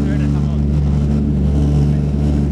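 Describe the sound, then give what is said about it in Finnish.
Loud, steady roar of a DC-3's two piston engines at takeoff power, about 1200 horsepower each, as the plane climbs away: a deep droning rumble with strong low harmonics filling the whole clip, continuous without letting up. “No niin, nyt on starttitehot päällä ja nyt on vähän tehoa enemmän.”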